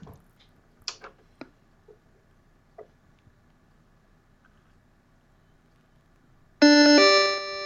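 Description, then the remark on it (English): A few soft clicks and taps as a Vectrex game console is switched on, then after a quiet pause its loud, bright electronic startup chime bursts in and rings on steadily at the end, with no talking. “I'm gonna have to like, uh, uh, we'll wait till it chimes because I think it's so quiet you might not even hear me turn it on.”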